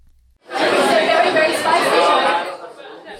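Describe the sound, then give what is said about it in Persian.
Dense crowd chatter of customers and workers at lunchtime in the Kabul Social restaurant in Sydney, which serves Afghan food cooked by Afghan women; many overlapping voices talk at once, fairly steady, with a brief quiet start before the hubbub rises and fades slightly near the end. “این صدای مشتریان و کارگران در وقت نان چاشت در رستوران کابل سوشل در سیدنی است کارگران شهر برای سفارش غذاهای با طعم افغانی پخته شده توسط زنان افغان در مقابل رستوران کابل سوشل صف بستند.”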